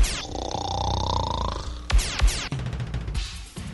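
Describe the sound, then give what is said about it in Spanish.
A loud, buzzy, drawn-out snore rumbles for a couple of seconds, then gives way to a few shorter, rougher snorts and grunting bursts, exaggerated. “Sus noches son solo para roncar.”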